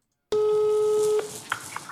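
A telephone line tone sounds once, a steady electronic hum lasting about a second, then cuts off with a click, leaving faint background noise and a small blip, as a woman phones her father.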